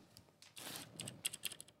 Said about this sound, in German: Und dann gibt es noch die Clicky-Schalter, das ist das, was du gerade meintest, mhm. die blauen, beziehungsweise hier zum Beispiel beim WASD-Keyboard die grünen,